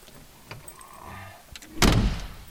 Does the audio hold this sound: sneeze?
no